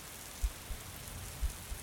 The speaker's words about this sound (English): then the sounds of raindrops hitting the asphalt. The smell of fresh raindrops floated into the tent.